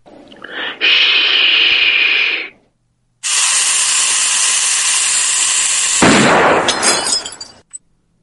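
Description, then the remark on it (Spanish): A loud shushing hiss, a call for silence, lasting a couple of seconds, then after a brief pause a longer steady hiss that ends in a sharp gunshot blast with a short decaying tail; the sound effect of the logo of the association Producciones Esquizoides. No voices. “El shh, ese y ya después el disparo, es el, digamos el efecto de sonido que tiene el logotipo de mi asociación, eh, que es Producciones Esquizoides.”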